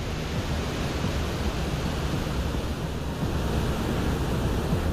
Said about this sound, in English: In the early 80s, the Soviet lander Venera 14 successfully landed on the surface. It survived for nearly an hour before shutting down. And during that time, it picked up these eerie sounds of the Venusian winds.